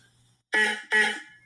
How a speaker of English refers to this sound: So, the first thing that they've decided was that the distinctive sound uh, of, of uh, the car would be something that we associate now, like the bulb horn, all right? The, the honk honk uh, bulb horn. Here, here would be an example of that